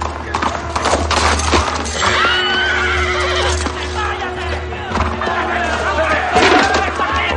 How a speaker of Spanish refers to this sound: Un jinete de la Guardia Real detiene en seco su caballo.